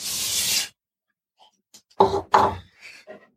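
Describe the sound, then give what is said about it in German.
In a small kitchen, a short, dense rush of dry groats pours into cold water with a steady hiss and rattle, followed after a pause by a few louder scraping knocks. “Also ich habe jetzt hier die Grauben. Nicht die Trauben, sondern die Grauben. Und ich werde sie einfach mal in, das kalte Wasser eingeben.”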